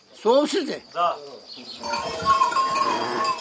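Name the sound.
sheep bleating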